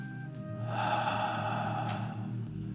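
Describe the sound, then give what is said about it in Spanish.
Loud breathing during a breathing exercise: a few quick, short pulls of air in, in three steps, then a long, deep breath out, with no one speaking. “Voy a hacer un poquito de ruido. Inhalo tres y profunda.”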